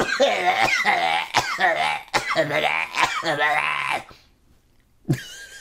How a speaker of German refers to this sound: warte mal, ich muss gerade niesen.